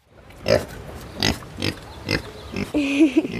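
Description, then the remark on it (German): A Kunekune pig at Tierpark Hellabrunn zoo, during an animal training session, grunts in a series of short, gruff snorts about every half second, ending with a higher, drawn-out squealing note. “den Kuhne-Kuhne-Schweinen im Tierpark Hellerbrunn, noch viele andere Tricks bei.”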